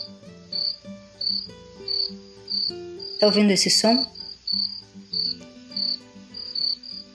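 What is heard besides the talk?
cricket chirping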